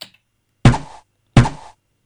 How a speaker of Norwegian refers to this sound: Det er pil og bue.